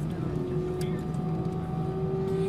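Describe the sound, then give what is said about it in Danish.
A loud, steady airplane engine drone fills the whole stretch, its tone climbing slightly as the pilot revs up the engine before takeoff, continuous. “Nu skruer de op på motoren.”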